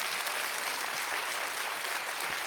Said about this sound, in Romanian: Probabil se trage din copilăria la țară, aveți rude la țară, să aplaude oameni care mai au rude la țară, da?